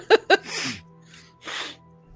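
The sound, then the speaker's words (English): Two quick vocal grunts, then a couple of forceful, breathy nasal snorts about a second apart, as people clear their noses to get rid of a nose whistle. “Okay, can everybody just like make try and clear your nose real quick?”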